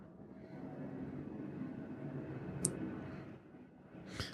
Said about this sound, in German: Also ihr wollt die Flugzeugatmo haben, oder was, ne? Naja, das andere würde bedeuten, Tür zu machen. Und so kommt wenigstens ein bisschen wenigstens frische Luft.